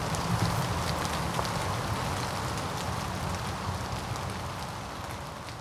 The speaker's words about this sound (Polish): Dobra, coraz bardziej pada.